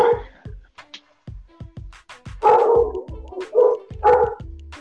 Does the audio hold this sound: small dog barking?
yes